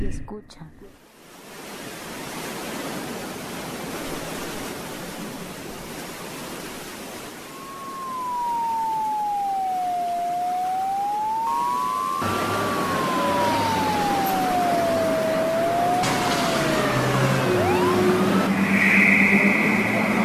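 A steady wash of city traffic noise fills the scene, and about midway a wailing siren rises and falls for several seconds, clear above the rumble before it fades.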